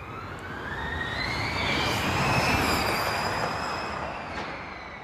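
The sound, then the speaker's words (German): A Formula 1 race car with a combustion engine roars past on a track, recorded from beside the track; its high engine whine swells to a loud peak midway and then fades with a falling pitch as it moves away. No one speaks. “stand dann alleine neben der Strecke und dann habe ich gedacht, so, und jetzt nehme ich mal auf, wie das Ganze klingt”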